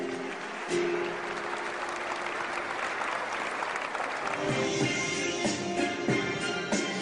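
Loud, sustained applause from a crowd, a dense steady wash of clapping that holds for several seconds, with a faint tonal hum underneath and some indistinct voices mixed in.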